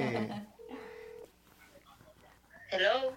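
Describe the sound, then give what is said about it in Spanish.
A steady electronic telephone tone sounds for about half a second as a phone call is placed during a live broadcast, between bursts of people talking, with a low hum under the closing voices. “Ya supiste que estás en vivo porque dije, me da miedo marcarle porque yo sé cómo me contesta.”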